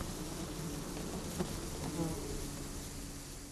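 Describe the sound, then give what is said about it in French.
A dense, continuous drone of many flies buzzing around a dead body found by investigators in Mayotte in 2011, steady throughout with a few brief swells as individual insects pass; no voices. “Les mouches sont très nombreuses, notent les enquêteurs, peu habitués à tomber sur des cadavres.”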